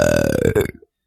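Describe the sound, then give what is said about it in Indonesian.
A single loud burp with a low, rumbling resonant tone lasting under a second, ending abruptly into silence. “itu angin apa itu barusan?”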